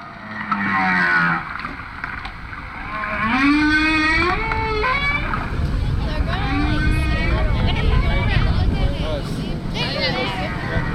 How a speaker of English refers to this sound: A hydrophone the crew dropped into the water records the sounds of a lone male humpback trying to sweet talk a female.